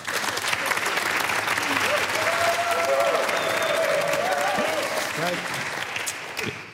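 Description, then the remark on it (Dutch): A live audience applauds steadily for several seconds, a dense wash of clapping with a few faint voices and cheers mixed in, tapering slightly at the end. “geef ze rust nog even een applaus.”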